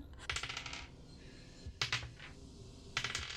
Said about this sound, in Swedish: Jag gillar inte hur många tärningar han slår.